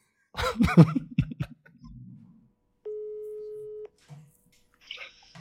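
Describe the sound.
A single steady telephone ringback tone, about one second long and fairly loud, follows brief talk and a short pause while a call goes out; faint voices pick up afterward.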